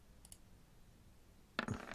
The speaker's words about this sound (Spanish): Y yo voy a tirar dos dados 20 por estos dos tipos.